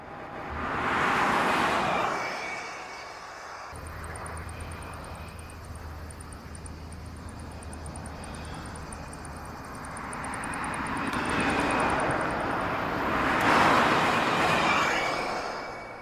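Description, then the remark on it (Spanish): A hydrogen fuel cell car runs with a steady low rumble and a thin high-pitched whine, swelling louder near the start and again near the end as if revving or passing by. No voices. “cómo suena un coche con celdas de hidrógeno, para ver si ustedes que les gustan los coches empiezan a echarle más flores a esto en lugar de los coches eléctricos, pues aquí les la neta, spoiler alert, no suenan padre.”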